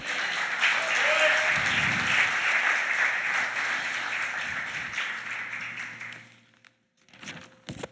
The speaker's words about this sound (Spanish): Dale ese aplauso al Señor.